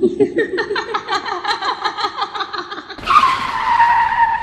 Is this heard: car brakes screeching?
yes